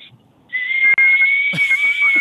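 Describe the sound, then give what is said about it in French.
A radio caller from Saint-Hippolyte imitates a whistling electric kettle with a loud, sustained, shrill tone that holds steady and climbs slightly in pitch, turning hissier and harsher toward the end. “Moi, je fais la bouilloire électrique.”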